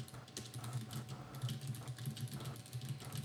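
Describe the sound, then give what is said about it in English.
Hard, rapid typing on a keyboard: a dense stream of sharp, clacking keystrokes in an uneven rhythm over a steady low hum, with no one speaking. “Can you stop typing so hard?”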